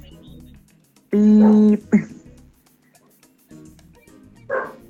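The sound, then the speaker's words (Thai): A pet dog at home barks a few times: a loud, drawn-out bark, then a short sharp one, and a softer bark near the end, with quieter background sounds in between. “ฮองฮองไม่เกี่ยวอันนั้นอันนั้นสุนัขที่บ้าน”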